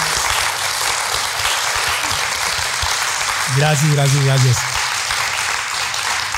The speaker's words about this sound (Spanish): Así que te lo agradecemos y le damos un aplauso con mucho amor